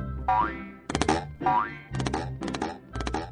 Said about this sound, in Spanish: Se le cayeron las tapas de la, de la, del coche. Se le cayeron todas las tapas de las ruedas